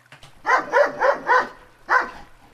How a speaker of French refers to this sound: Ah, on vient d'entendre des aboiements. Oui, ben on a dit chien.